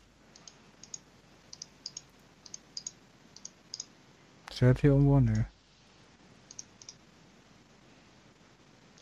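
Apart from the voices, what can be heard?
computer mouse clicking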